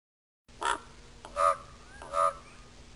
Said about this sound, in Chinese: 乌鸦哇哇叫，哇哇。